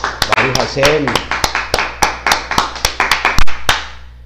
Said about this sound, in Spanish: Le recibimos con un fuerte aplauso.